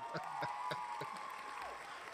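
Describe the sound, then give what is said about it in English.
An applause sound effect: a burst of crowd applause, a steady wash of clapping with a few sharper claps standing out, plus a sustained whistle or whoop that bends downward near the end. “I'm saying was I can't believe that you had the nerve to put some applause after come out.”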